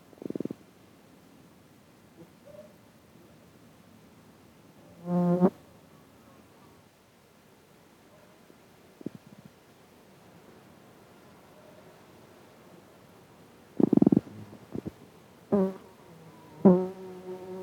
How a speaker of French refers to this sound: Mais on commence par la chanson d'amour d'une mouche de vinaigre.